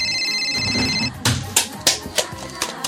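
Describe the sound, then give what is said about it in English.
A phone rings with a steady, bright electronic tone for about a second, then stops abruptly and is followed by a series of sharp, loud knocks or bangs at uneven intervals. “Is that my phone?”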